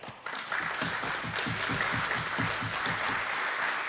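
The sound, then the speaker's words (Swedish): A crowd in Gävle bursts into applause for the hosting audience, many hands clapping in a dense, steady patter that holds at an even, fairly loud level for a few seconds. “Så en stor applåd till er som har hållit på.”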